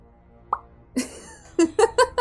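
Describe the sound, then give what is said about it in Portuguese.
A voice imitates Ant-Man falling into water as a special effect: a single small plop, then a broad splashy burst followed by three quick bubbly gulps, fairly loud, with no words spoken. “Ô, amor, faz o efeito especial do Homem-Formiga cair na água.”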